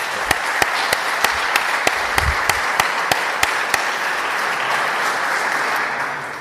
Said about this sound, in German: Das ist mir ein Applaus.